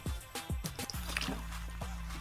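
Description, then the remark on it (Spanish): A person gulps and swallows drinking water, several quick wet pulses in a row followed by a pause and one more swallow, with no talking. “Se escuchan cierto como ruido acuático, es básicamente porque estoy tomando agua.”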